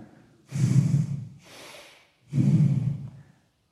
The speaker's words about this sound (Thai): รู้สึกตัวแล้วบางทีน้ำโมกไหลน้ำโมกไหลใช่ไหมเราก็สั่งขี้มูก